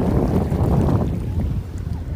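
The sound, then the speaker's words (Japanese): A steady, fairly loud low rumble of ocean waves washing on a beach on Kumejima, Japan, recorded while walking along the beach, blended with gusty wind buffeting the microphone, continuous over the whole stretch with no clear talking. “浜辺で、ね、波の音とかもしかしたら聞こえてるかなと思うんですけどみんな休んでるところにちょっとね散歩しながら、この音声を撮っています”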